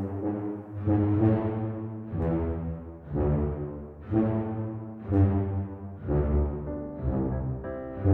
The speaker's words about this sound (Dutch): dat is eigenlijk een tuba en die dubbelt. Je kunt die contrabas alleen aanzetten. Maar als je dan zo'n tuba erbij zet